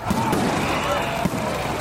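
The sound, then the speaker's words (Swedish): A fireworks sound effect plays on a New Year's show: a dense, continuous wash of crackling and fizzing with a couple of sharper pops, fairly loud and steady for under two seconds. “Jag tycker vi kör en applåd och ett fyrverkeri på det!”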